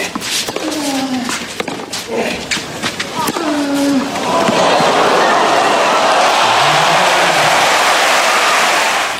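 An audience rising to its feet for a guest cheers loudly, with scattered whoops, shouts and sharp claps at first, then swells into a dense, sustained roar that holds steady to the end.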